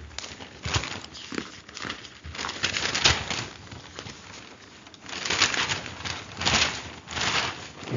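Paper rustles and crinkles in irregular bursts, with louder handling in the second half as if it is being folded. Nobody speaks.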